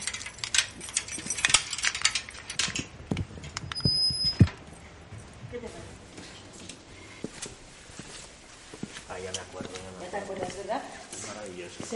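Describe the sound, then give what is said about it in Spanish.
An old, somewhat rusty metal door, the original from the site's inauguration, clanks and rattles open with a short high squeak of rusty hinges, followed by scraping and creaking as it swings, fairly loud. “Ya vemos que está así un poco oxidada y así. No hemos querido cambiar nada. Y ahora voy a abrir la puerta, no te pierdas el sonido.”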